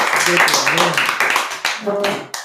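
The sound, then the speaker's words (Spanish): Audience applause welcoming a trio of singers fills the background as a steady, dense wash of clapping, while a voice talks over it without pausing. “Por favor, un aplauso.”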